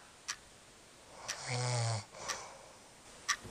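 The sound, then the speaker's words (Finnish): A single rumbling snore from a person lying right beside the listener, lasting about half a second, with the soft, steady ticks of a clock sounding once per second in an otherwise quiet room. “Ei, miksi toi kuorsaa tuossa vieressä?”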